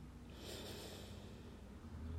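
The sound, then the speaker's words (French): A long, soft exhale after a deep breath, steady and airy with a faint hiss, lasting a couple of seconds with no talking over it. “Voilà, je vous invite lentement à souffler à nouveau après une grande respiration”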